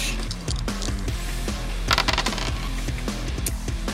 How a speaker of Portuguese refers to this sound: Eu quero que você role para mim 6 dados, porque ele tem força 3.